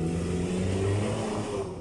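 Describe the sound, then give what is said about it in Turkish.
A loud, steady engine rumble from big cars passing right beside the speaker, a deep droning hum with a rising whine that eases slightly toward the end. No one speaks. “yanımdan koca koca arabalar geçiyor.”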